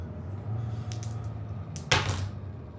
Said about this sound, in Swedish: Han smackar igen datorn. Pang!